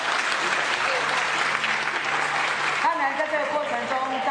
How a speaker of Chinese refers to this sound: 那署长、副署长特别今天还亲临来参加，掌声再次鼓励一下。